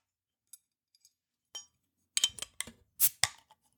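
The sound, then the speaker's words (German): Glasses of lemonade clink together in a toast, a few light taps followed by a cluster of brighter, louder clinks and rattles, with no talking. “Äh, ja, Prost. Prost. Ist allerdings nur, in Anführungszeichen nur eine Limo, äh, aber eine sehr leckere.”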